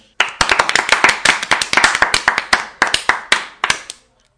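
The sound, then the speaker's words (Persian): Steady applause from a small group cheering for Barcelona: dense, bright hand claps in a quick rhythm, loud and continuous for about four seconds before stopping abruptly. “یه تشویق هم بارسلونا رو بکنیم که کسی هم شک نکنه”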